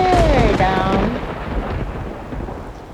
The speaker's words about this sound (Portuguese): O que aconteceu? Hum, um raio derrubou uma velha laranjeira, isso mesmo. Hum, será que a tempestade vai durar a vida inteira?